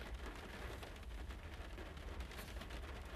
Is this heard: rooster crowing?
no